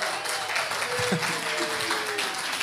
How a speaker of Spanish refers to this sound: Hoy es el Día del Médico también. Felicidades a los hermanos doctores. También un aplauso para ellos.